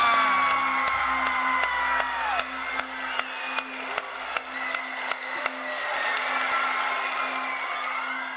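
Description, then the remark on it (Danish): A crowd cheers and whoops loudly and continuously, with scattered high shouts rising over the roar and sharp clapping bursts cutting through at irregular intervals, as NASA announces Perseverance as the name of its next Mars rover. “Jublen ville ingen ende tage, da NASA den 5.”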